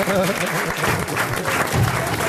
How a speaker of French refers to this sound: Vous pouvez applaudir Marc-Antoine Lebray qui reste avec nous.